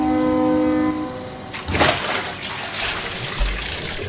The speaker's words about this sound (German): Vor Wut macht Shelly Luftblasen. Wie immer, wenn sie sich aufregt.